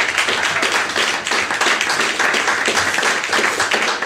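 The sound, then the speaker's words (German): A live audience claps steadily for about four seconds, a dense, even wash of many hands with no voices standing out above it. “Ähm, wir hören heute drei Podcasts äh, in ihren Live-Aufnahmen ihrer Folgen und haben heute das ist der erste Moment, wo ihr schon mal äh, kräftig äh, klatschen dürft.”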